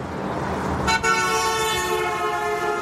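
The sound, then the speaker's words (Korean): A loud, sharp car horn blares continuously for about two seconds, its harmonic tone sustained over a low rumble of street traffic in the background. “길고 날카로운 자동차 경적 소리가 주변 소음을 한꺼번에 긋고 지나갔다.”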